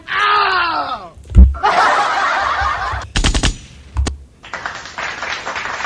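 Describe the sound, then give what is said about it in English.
Bursts of dense, crackling applause from a sound effect, starting and stopping abruptly, broken up by a short descending tone at the start and a few sharp, loud thumps. “Okay, okay, no more applause here.”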